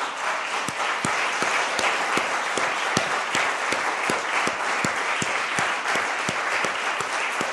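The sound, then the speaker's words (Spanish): An audience applauds God steadily, dense overlapping claps forming a loud, sustained wash with a few sharper individual claps standing out, and no speech over it. “Dele un aplauso gigante a Dios, de verdad, no le duela.”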